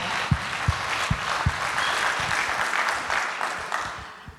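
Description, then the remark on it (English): A crowd at a church event breaks into applause, a dense wash of clapping that stays steady and fairly loud, with a few sharp individual claps standing out near the start before it gradually thins at the end. “Let's give them a round of applause and thank Jesus for the way that he's worked through them.”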